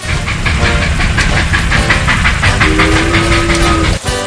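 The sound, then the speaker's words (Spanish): A train rumbles loudly along the rails with a steady rhythmic clatter and hiss, and a brief low whistle-like tone sounds near the end before a sudden dip. “Pensando en la necesidad de nostalgia imperante en nuestros días, en ese clamor por regresar a lo antiguo, como el ferrocarril,”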